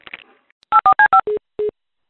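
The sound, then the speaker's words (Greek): Six short, loud telephone keypad tones in quick succession: four rapid beeps with dual pitches, then two lower-pitched beeps spaced slightly apart, following a brief muffled rustle. “Καλώ.”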